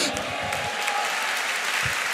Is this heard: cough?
no